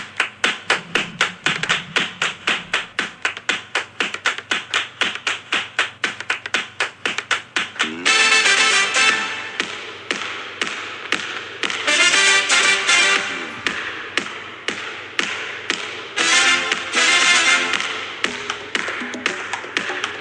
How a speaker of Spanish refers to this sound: escucha escucha escucha qué linda que es la intro de básquet en Uruguay